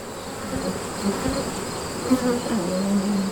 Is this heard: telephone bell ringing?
no